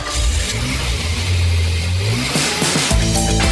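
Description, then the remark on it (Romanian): A car engine, as a woman and two of her sons set off by car from Mannheim in August 1888, runs loud, its drone climbing and holding in a sustained rev before easing off, then a couple of quick sharper revs near the end. No voices. “O doamnă din localitatea Mannheim se urcă în mașină cu doi dintre fiii săi și pornește în călătorie cu destinația Forsheim.”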